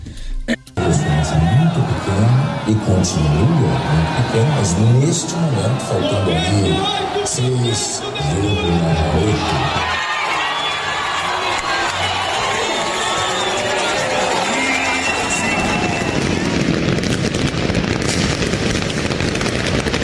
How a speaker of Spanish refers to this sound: Vamos a escuchar los festejos en Brasil, que ahí sí estuvo bueno, hasta les estorbaba la ropa.